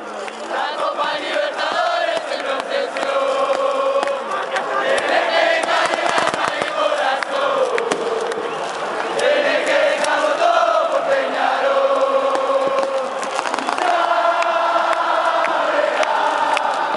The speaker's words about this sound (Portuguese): Vou colocar um áudio aqui que é eles chamam do recebimento, né? Que é a entrada do, do, do, do Penharol em campo, a gente vai subir um áudio aqui da, da, da torcida cantando e o Penharol entrando em campo com foguete e tudo mais.